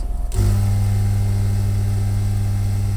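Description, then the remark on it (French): A dental plaster vibrator kicks on after a short pause and keeps running with a steady, loud low-pitched buzz and mechanical hum, unchanging to the end, with no one talking, as mixed plaster is poured into a dental impression tray. “Une fois qu'il est mélangé, vous avez ici un vibreur. Je vais couler le plâtre dans le porte-empreinte.”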